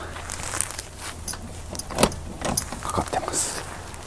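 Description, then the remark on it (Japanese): A padlock on the locked door of a storage shed in a park, by a building with vending machines, is rattled, giving a series of sharp metallic clinks and jangles in irregular bursts over a low steady background hum. The shed could hold six or seven adults. “到着しました南京錠がかかってますね大人が頑張れば67人入れるもっと入れるかぐらいの物置です”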